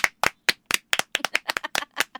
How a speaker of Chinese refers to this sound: 呜呼，拍手！